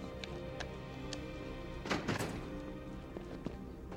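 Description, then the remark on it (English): A heavy security door behind a clerk's desk unlatches and swings open with a solid thunk and brief metallic rattle midway through, surrounded by faint scattered clicks over a low steady background hum. “And I'm gonna try let's try the security door behind the clerk's desk.”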